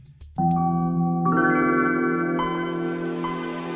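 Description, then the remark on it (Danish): The Windows 95 startup sound plays alone: a swelling, shimmering synth chord that blooms after a brief opening, adds a bright upper layer midway, then sustains and slowly fades. “at det var startoplyden til Windows 95, der var den foregående episodes mystiske lyd”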